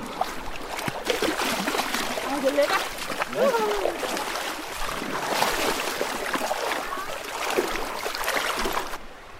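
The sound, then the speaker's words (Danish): Seawater splashes and sloshes repeatedly as a child scoops and pours it with a yellow bucket, a steady wet churn running throughout while people talk. “er ved at tømme havet med sin gule spand derinde.”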